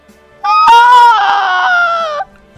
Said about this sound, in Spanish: Yo digo desde el lado, desde donde veo toda esa atracción que se ve, digo, esa mujer está trastornado por la muerte de su pobre muchacho. Es duro, ¿eh? Un grito desgarrador, esos gritos que te hacen doler en la mitad del pecho.